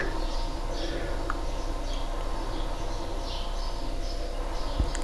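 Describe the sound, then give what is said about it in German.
Faint birds chirp in Manschno in short scattered bursts over a steady low background hiss, with no voices and no cars to be heard. “Also wenn ich wirklich so mitkriege, dass man gar kein Auto hört, nur die Vögel, das ist schon schön.”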